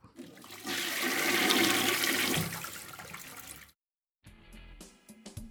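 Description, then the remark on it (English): A toilet flushes with a loud rushing whoosh of water that swells and then drains away, followed by a brief silence and the softer gurgle of the tank refilling. “bottom line no matter how you position your toilet paper, we all know where it ends up. The less of it in your pipes, the better.”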